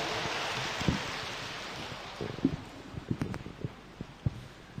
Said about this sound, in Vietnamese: xin vị dành tràng pháo tay để lắng nghe sự chia sẻ của đại đức